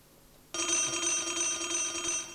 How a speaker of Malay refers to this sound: Abang, ada bunyi telefon tu. Angkatlah.